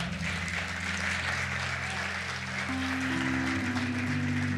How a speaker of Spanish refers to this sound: Dar un fuerte aplauso al Jesús.